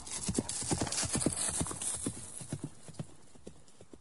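Steady clip-clop of a horse's hooves on a hard surface, a brisk rhythmic trot of many sharp knocks that fades slightly as it continues, heard alone without talking, as a knight and a young woman ride off together on one horse to the village church.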